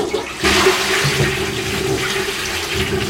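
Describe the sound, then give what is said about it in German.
A toilet flushes, starting with a sudden loud rush of water that settles into a steady, gurgling swirl as the bowl drains and refills. No voices are heard. “Die Klospülung natürlich, die löst jetzt nicht ganz so schöne Gefühle bei mir aus wie das Meeresrauschen.”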